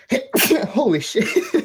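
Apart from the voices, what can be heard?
a sneeze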